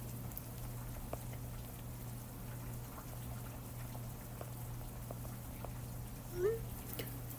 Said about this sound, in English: Anyways, can this rain please stop? Heavy rain for the next 30 minutes and then moderate rain for the next 30 minutes after that. Are you kidding me?